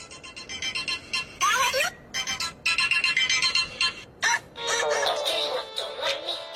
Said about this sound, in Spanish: te hablan por teléfono.